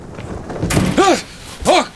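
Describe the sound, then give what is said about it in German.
A door is blown shut by the wind and bangs with a hard thud, followed by two short, strained vocal outbursts from a man right after the impact. “Boah, scheiß Tür! Scheiß Wind!”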